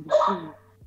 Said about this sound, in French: Excusez-moi, c'est mon chien.